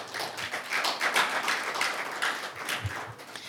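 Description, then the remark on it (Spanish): A church audience applauds for God, many hands clapping at once in a dense, continuous patter with no one speaking, at moderate loudness for a few seconds. “¿Listos para la palabra esta mañana? Denle un aplauso a Dios.”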